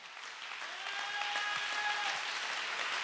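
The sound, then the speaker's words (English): A crowd at a religious revival service claps steadily, dense applause that swells slightly and holds, with a faint sustained tone or hum running underneath the clapping. “I wish you would clap your hands like you believe what I just said.”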